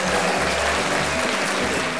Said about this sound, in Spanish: Entonces, para los millones de, para los millones de suscriptores que tenemos, sí, por supuesto que se merecen un aplauso.